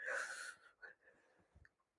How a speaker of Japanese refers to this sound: 今なんかちょっと一瞬、あくびが出てしまいまして 失礼しました。